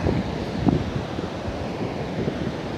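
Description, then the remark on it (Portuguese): Steady ocean surf washes continuously at a beach while wind buffets the microphone, a broad, rumbling roar with no distinct pauses between waves, fairly loud. “O barulho do mar.”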